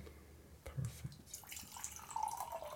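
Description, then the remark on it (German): Water is poured into a glass, a soft gurgling splash that rises slightly in pitch as the glass fills. Faint clinks and movement come before it, and no one speaks. “Kannst du mir schnell ein Getränk dort geben?”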